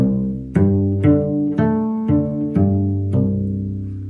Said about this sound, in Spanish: si voy, si voy a hacer el pizzicato más hacia donde paso el arco, suena como más duro y me puedo hacer daño en los dedos.